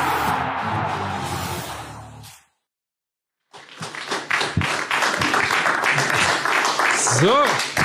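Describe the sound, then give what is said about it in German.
After a short burst of crowd noise and a moment of silence, dense applause breaks out at the end of a TV segment, many overlapping claps at a steady loud level, with a brief rising whistle-like tone near the end. “Der Beitrag ist zu Ende, aber der Applaus galt natürlich nicht uns oder der Sendung, sondern natürlich der sehr erfolgreichen.”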